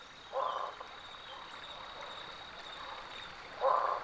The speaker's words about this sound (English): How wonderful it was to enjoy the night chorus of barking frogs, truly a springtime sound delicacy, an unforgettable voice of the towering limestone bluffs of the Lost Maples State Natural Area in the hill country of Texas.